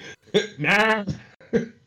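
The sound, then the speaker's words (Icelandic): A man's voice gives a short, loud, drawn-out call to sheep, framed by a few sharp vocal bursts. It sounds alone, with no other talk. “Já, já, já, já, akkurat, akkurat Hann er besti rollu kallar í landsins”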